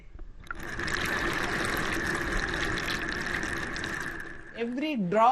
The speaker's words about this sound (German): Und schon sind sie in der Küche. Ihr Ziel der Wasserhahn. Tropft er oder tropft er nicht?